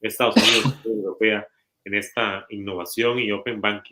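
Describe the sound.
A single sharp sneeze bursts out at the start, then a person keeps talking steadily in the foreground.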